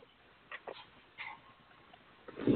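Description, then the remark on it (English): A dog chews on a ball, producing quiet, irregular clicks and squishy gnawing noises that grow louder and busier toward the end, with no one talking. “What are you chewing on back there?”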